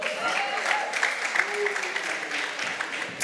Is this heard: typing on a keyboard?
no